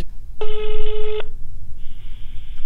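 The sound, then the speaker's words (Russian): A single long ringback tone sounds from a phone line as someone places a call, steady and electronic, followed by a pause and the start of a second fainter tone, with no one talking. “Сейчас я ей позвоню, спрошу.”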